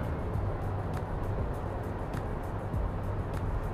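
Steady, droning road and engine rumble from inside a moving car, recorded while driving as a microphone test, continuous and fairly loud, with faint regular ticking on top and no voices.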